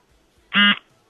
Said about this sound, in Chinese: 你看，你用你的刮腿毛的这个这个这个这个剃须刀的这个剃毛机的这个震动，来回应了我